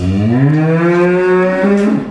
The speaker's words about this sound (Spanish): Una vaca.